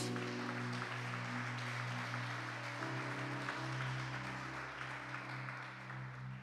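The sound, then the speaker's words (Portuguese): An audience claps steadily for the whole stretch, a dense, even wash of applause, with sustained organ-like keyboard chords droning underneath and shifting pitch partway through. “Você pode dar uma salva de palmas a Cristo Jesus?”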